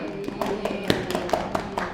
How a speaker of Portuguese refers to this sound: Acabou então essa história. Palmas para a história.